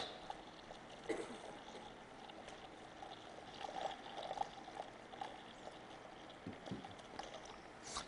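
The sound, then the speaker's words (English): Water is poured steadily onto a teaspoon of baby diaper absorbent polymer for several seconds, a soft continuous trickling wash with a few faint splashes and clinks, fairly quiet. “So I could go and pour much more of this in there, but I think you've gotten the idea there that this is a very, very interesting molecule.”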